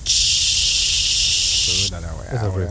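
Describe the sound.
A loud, steady hiss of white-noise static fills the first two seconds, then cuts off abruptly as voices begin talking.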